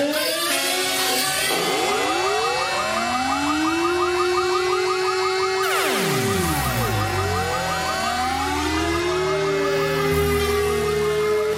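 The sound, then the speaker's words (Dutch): A house burglar alarm wails loudly and continuously, its layered electronic tones sweeping up and down in repeated cycles, with one deep downward plunge partway through. No one speaks. “Schat, heb je het alarm al aangezet?”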